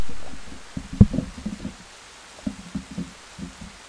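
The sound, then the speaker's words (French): Rain falls steadily with a soft, constant hiss, broken by irregular low patters and thuds of drops, one sharper tap standing out early on. No voices are heard. “Pleut là, voilà.”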